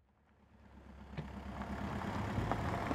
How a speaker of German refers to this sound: Ein Sonntag Anfang Oktober 2019. Im Morgengrauen rollen nach und nach rund 300 Autos auf einen Parkplatz in 1700 Metern Höhe.